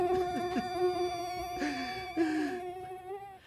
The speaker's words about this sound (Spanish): Apenas te has acostumbrado a los mosquitos.